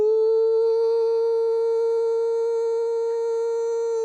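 A tornado siren holds one loud, steady tone for about four seconds, unwavering in pitch and clear, with no voices or other sounds around it.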